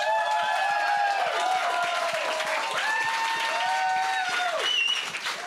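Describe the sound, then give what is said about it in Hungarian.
A crowd applauds steadily, many hands clapping in a dense, even wash of sound, with cheering voices and whistle-like tones rising and falling over the clapping. “ugye Varanyi Kriszta is szuper eredményt ért el, ha jól láttam a számokat, úgyhogy egy nagy tapsot Krisztának is.”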